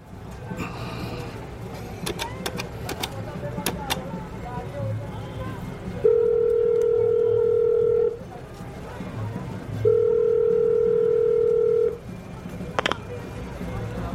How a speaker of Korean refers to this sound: 공중전화에서 어딘가에 전화를 걸었다.